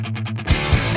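Loud, distorted punk rock guitar starts with a few quick chugging strums, then the full band crashes in with heavy drum hits and a dense, gritty wall of sound.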